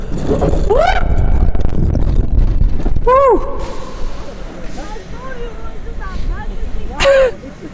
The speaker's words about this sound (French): On est dans un roller coaster et puis on va bien voir si on en ressort vivant